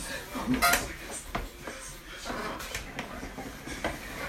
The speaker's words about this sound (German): Jetzt müssen wir zwei Stühle quietschen hören, Alter, scheiße.